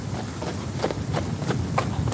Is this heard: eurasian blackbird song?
no